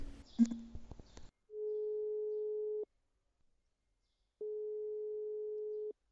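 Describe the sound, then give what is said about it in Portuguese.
A phone call's ringing tone, calling a friend during an Instagram live stream, sounds twice, each a steady, level beep of over a second separated by a pause of silence, after a short burst of clattering noise at the start. “Decidi hoje ligar a um amigo meu que já não liga há muito tempo e que queria trazer alguma parvoíce para este direto.”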